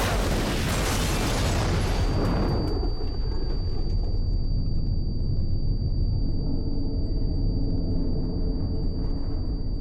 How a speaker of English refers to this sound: car explosions were always fun. Basically, there's not a huge trick to them. The effects guys just load them up with gasoline and light them on fire.